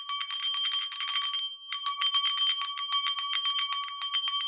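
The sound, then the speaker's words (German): A hand bell rings continuously with rapid, bright metallic strikes, loud, pausing briefly after a second and a half before ringing on. No one speaks. “Ähm, das hört sich nämlich an wie die Glocke vom Eismann.”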